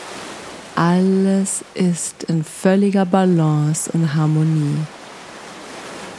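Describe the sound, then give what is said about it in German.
Soft, steady wash of ocean waves rolling in and out in the background, continuous and fairly faint, beneath a calm voice speaking slowly in the foreground. “Und du kannst dich dabei immer an die Wellen im Hintergrund orientieren.”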